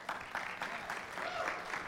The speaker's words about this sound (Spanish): ¿Por qué no le damos un aplauso a ese muchacho?